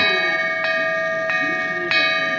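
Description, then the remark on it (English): Wind chime tones ring and sustain, with three fresh metallic strikes about every two-thirds of a second layering over the lingering shimmer, fairly loud, no voices. “Do you know what a wind chime is in English? This is a wind chime.”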